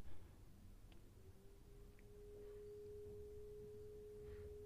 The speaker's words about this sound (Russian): Кто-то пылесос включил, похоже.